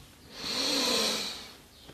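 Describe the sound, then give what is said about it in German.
A single slow, deep inhalation during a guided breathing exercise, airy and breathy, swelling gradually and then fading over about two seconds, with no talking. “Wir nehmen jetzt gemeinsam einen tiefen Atemzug und atmen ein.”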